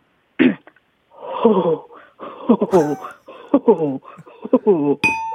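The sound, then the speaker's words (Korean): A person mimics with their voice the cooing of a pigeon resting alone in a park, a short opening burst followed by a string of throaty, warbling coos in uneven bursts, fairly loud, ending with a brief bright chime. “어, 이거는 비둘기가 이제 공원에서 혼자 쉬고 있을 때 내는 네네.”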